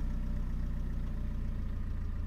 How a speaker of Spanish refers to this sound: Paula escucha a Fernando arrancar el auto.